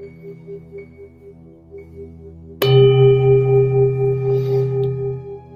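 A meditation bell is struck once over a soft, steady tonal hum, its bright attack giving way to a loud, sustained ring of layered overtones that lingers to the end.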